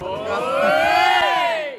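A crowd at the SF Awards banquet cheers and shouts together in a loud, sustained roar with rising, whooping voices, swelling through the middle before easing off at the end.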